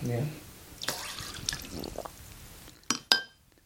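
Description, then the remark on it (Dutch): Liquid is squeezed from a pipette into a small glass bottle that already holds two drops of LSD: quiet squirts and a few sharp glassy clicks and taps, after a brief bit of speech at the start. “Dus dan pak ik mijn eh, pipet en dan vul ik eigenlijk het flesje waarbij er twee druppels LSD al in zitten.”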